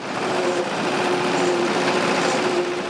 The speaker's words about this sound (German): Immer wieder fährt das Mähbootsgespann die Brenz hoch und runter, immer um eine Bootsbreite versetzt, aber ganz gemächlich.